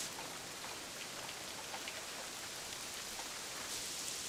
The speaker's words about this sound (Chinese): 希望能快点放晴。 感觉雨变大了， 再这样下去，沙雕就会被毁掉了。